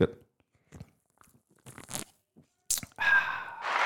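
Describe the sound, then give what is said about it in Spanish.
Someone takes a small sip of a drink after a toast: a few small slurping and swallowing noises, then a loud, breathy exhale after the swallow. “un traguito, mi hermano, un ¿Eh?”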